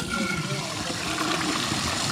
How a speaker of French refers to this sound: Je vais essayer la chasse.